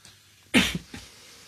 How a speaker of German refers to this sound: du hast Husten, du Ärmster. Ja, so ein bisschen.